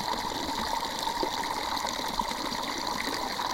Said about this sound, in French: Et c'est Parce que je suis pas assez dans l'eau, sinon là le micro il est dans l'eau. Ah, mais là, c'est bien. Après, là, c'est aussi plus fort. Le, le jet d'eau est plus fort quand même. hein.